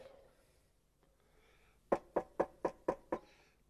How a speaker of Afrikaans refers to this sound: Jesus sê ek staan by die deur en ek klop